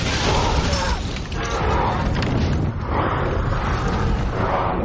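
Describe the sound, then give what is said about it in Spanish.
At night, the attackers of Minas Tirith fire catapults that hurl incendiary projectiles, in a scene from the 2003 film The Lord of the Rings: The Return of the King. A dense, continuous roar of battle noise, with heavy booms and crashing impacts swelling over a deep rumble and no clear pauses. “Ya de noche los atacantes de Minas Tirith lanzan proyectiles incendiarios con las catapultas.”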